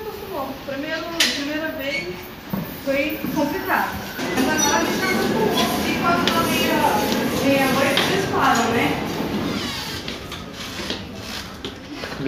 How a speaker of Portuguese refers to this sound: Um trem que, por sinal, vai ser bem presente na nossa conversa.